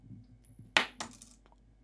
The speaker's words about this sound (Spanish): qué hostia! Se ha dado la moneda. Ha caído en el teclado.